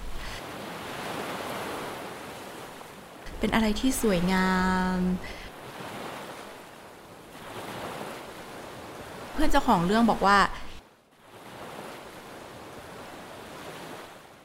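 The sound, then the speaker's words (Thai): A steady wash of ocean surf breaking on the shore, rising and falling in gentle swells. It continues throughout while a voice speaks briefly over it twice. “พอตัดภาพไปที่ทะเลแล้วนะถ้านึกภาพทะเลเนาะก็จะแบบ”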